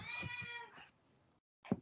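A cat gives a long, drawn-out meow with a bright, wavering pitch, then falls silent briefly before a shorter, louder meow cuts in at the end. No one speaks.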